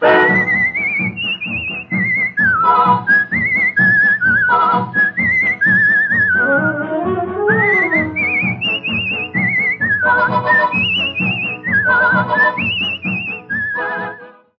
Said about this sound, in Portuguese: ele gravou assobiando com orquestra …